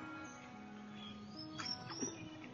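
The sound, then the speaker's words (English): Faint, scattered bird chirps and short high tweets at the beach over a low, steady background hum, with no one speaking. “Maybe it's a stroll along a creek or a river that you can walk and enjoy your sights and sounds, the birds”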